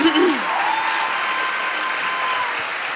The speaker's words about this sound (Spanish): Un aplauso, por favor.